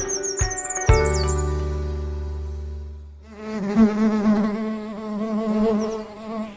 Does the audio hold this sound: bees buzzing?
yes